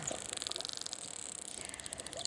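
Dolphin echolocation clicks, a rapid, steady train of sharp high-pitched ticks that runs the whole time over a faint hiss of underwater noise, with no voices.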